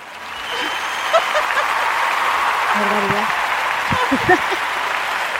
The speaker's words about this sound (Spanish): Pues eso que es que no me acordaba que tenía aplausos y vamos a usarlos. Entonces así más arropadita.